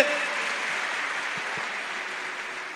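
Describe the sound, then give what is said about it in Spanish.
A crowd claps for Christ Jesus in a steady, dense, sustained wash of applause, with no voices breaking through, holding level before easing slightly at the end. “Dele un gran y un fuerte aplauso a Cristo Jesús.”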